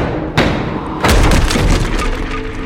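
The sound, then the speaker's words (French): Two men break down the front door of a house: one heavy thud, then a loud crashing impact as it gives way, followed by splintering and rattling debris that slowly trails off. “Les deux hommes défoncent alors la porte d'entrée.”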